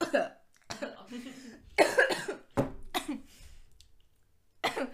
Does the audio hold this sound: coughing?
yes